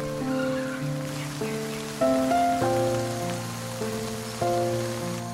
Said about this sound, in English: Fox woke to the sound of falling rain.